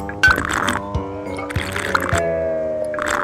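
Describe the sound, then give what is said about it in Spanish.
Tequila being poured into three small shot glasses, a gurgling stream whose pitch rises as each glass fills, with a few soft clinks and splashes between pours. “Y eche otras tres copitas de tequila.”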